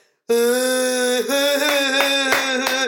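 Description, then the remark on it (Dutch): A single voice imitates a whole café terrace cheering when a waiter drops a glass, with one loud, sustained whooping cry lasting over two seconds, punctuated near the end by a few sharp, percussive bursts. “En dan hoor je het hele terras zo...”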